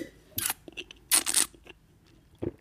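A phone camera snaps photos of a glass of foamy brown beer: a short crisp click, then a louder, longer double-clack shutter burst, and a fainter tick at the end, with no talking.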